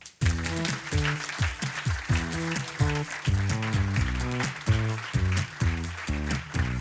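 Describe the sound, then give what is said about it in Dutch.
Sustained audience applause welcoming a guest, a dense crackle of many hands clapping, runs for about seven seconds alongside loud, rhythmic music with punchy repeated chords. “Geef een grote applaus.”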